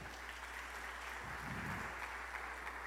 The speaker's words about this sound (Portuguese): Você pode aplaudir Jesus por isso, amados?